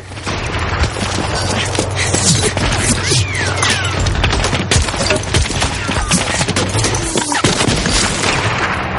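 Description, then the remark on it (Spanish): Dense battle gunfire rattles continuously in a street fight against tanks, with machine gun bursts and sharp rifle shots overlapping against a loud, chaotic backdrop of booms and crashes, with indistinct shouting. “Melis coloca en la ametralladora la última ristra que les queda.”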